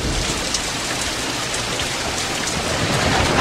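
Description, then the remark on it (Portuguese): Heavy rain with thunder pours down steadily outdoors in the center of Santa Cruz do Sul on July 7, 2020, a dense, even hiss of drops without pause, with a low rumbling undertone beneath it and no voices. “Olha aí a captação do som ambiente aqui no centro de Santa Cruz do Sul nesse momento.”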